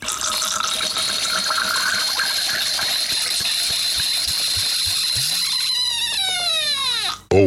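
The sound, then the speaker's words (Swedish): Wine pours steadily through a Vinturi aerator with a bright, airy hiss and gurgle, then rises in pitch as a vessel fills before the flow cuts off abruptly. Fairly loud, no voices. “Enligt Vinturi själva kommer ni dock då att gå miste om det patenterade ljudet.”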